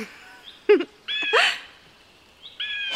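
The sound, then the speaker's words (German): A bird gives several nasal, cat-like mewing calls in short bursts, clear, with a longer drawn-out call in the middle and no voices. “Und der da miaut ja wie ein Büssi.”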